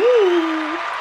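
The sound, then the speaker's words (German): A short burst of applause, a dense steady wash of clapping lasting about a second, with one low sustained voice-like tone gliding underneath at the start. “Uh, Applaus für dich.”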